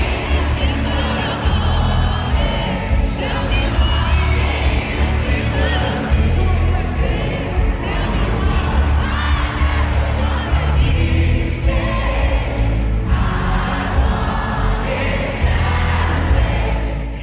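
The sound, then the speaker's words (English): A huge concert crowd in Toronto cheers and screams nonstop as a guest is welcomed to the stage, a dense roar of shrieks and whoops that stays loud and steady throughout, with a low rumble underneath. “and the crowd absolutely loved it.”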